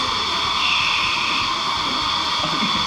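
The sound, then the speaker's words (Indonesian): A coffee machine runs with a steady, fairly loud whirring hiss that stays constant throughout, with no pauses and no voices. “jangan ngikutin suara mesin kopi suara mesin kopi”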